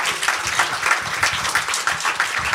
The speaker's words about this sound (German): Guten Abend, meine Damen und Herren. Grüß euch. Wir kriegen schon einen Applaus.